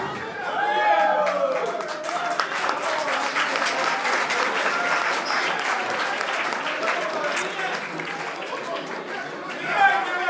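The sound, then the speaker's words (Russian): Steady crowd applause, a dense wash of many hands clapping at an even level for about ten seconds, with some murmured chatter and a voice briefly audible in the mix. “вы так аплодируете, как будто еще в курсе, кто это вообще такие.”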